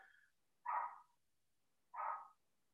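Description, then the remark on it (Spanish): Two separate dog barks, each short and sharp, spaced over a second apart with quiet between them, moderately loud, with no talking. “estoy grabando, se le ocurre ladrar”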